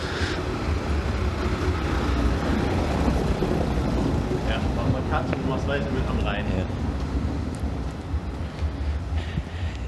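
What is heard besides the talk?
cars driving past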